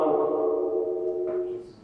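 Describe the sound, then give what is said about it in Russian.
A steady ringing echo tone holds level for almost two seconds before fading slightly at the end, with no speech over it. “Это не я, это эхо.”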